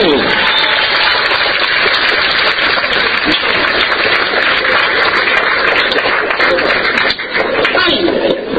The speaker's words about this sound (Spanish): Fuerte, fuerte un aplauso para este valiente.